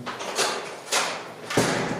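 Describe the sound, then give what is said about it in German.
A heavy prison cell door slides and swings shut, with a couple of rushing scrapes followed by a solid thud as it closes, no voices present. “Ich habe meine Sachen reingetragen, habe kurz noch eine Einweisung für den Notknopf bekommen und dann war die Tür auch schon zu.”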